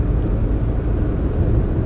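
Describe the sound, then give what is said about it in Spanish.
A steady, low rumbling drone fills the inside of a moving car, road and engine noise holding at an even, fairly loud level throughout with no voices. “De pronto después de este audio aquí en el carro manejando suceda algo grave, accidente y, y obvio, para algunas personas va a ser trágico.”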